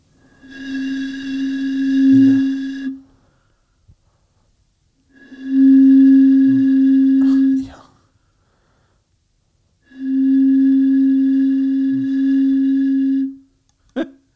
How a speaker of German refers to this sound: Machen wir mal Geräusche mit den Flaschen, ja.